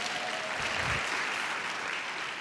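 An audience claps steadily, a dense wash of many hands applauding at an even, moderate loudness for a couple of seconds, with no voices standing out.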